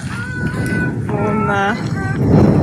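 Strong wind blows steadily on a very windy day during a pilgrimage, a rough, rumbling roar that swells slightly toward the end, with a person's voice speaking over the gusts.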